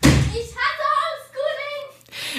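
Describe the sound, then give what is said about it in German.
A door slams shut once, a loud thud right at the start, followed by a child's high, drawn-out screams that continue for the rest of the moment. “so lang, bis die erste Tür knallt und das erste Kind schreien Zuflucht im Kinderzimmer sucht.”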